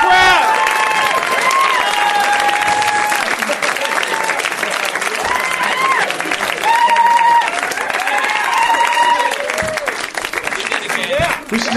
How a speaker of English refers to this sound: you like let them clap for 25 minutes, and that's the that's the thing. It's just you coming out.